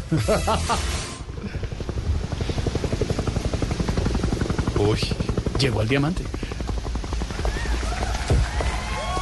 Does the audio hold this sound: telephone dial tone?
no